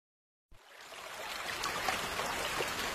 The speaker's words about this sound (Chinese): 下雨了，雨点儿淅沥沥，沙啦啦。